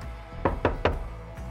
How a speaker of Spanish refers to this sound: alguien llama a la puerta de la habitación de Wei en un hotel en China